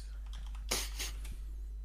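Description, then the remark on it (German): A quick flurry of keystrokes on a computer keyboard as someone searches online, soft clicks with a denser burst of typing in the middle before it tapers off. “ich habe jetzt mal gegoogelt”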